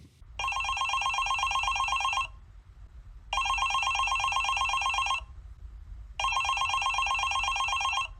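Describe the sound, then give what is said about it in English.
Three long bursts of an electronic telephone ring on an outgoing call, each about two seconds, separated by short pauses, heard clearly over a low steady hum with no one speaking. “the question is though, can we get her on the phone? Well, let's try. Let's call her you you, you you've got the number.”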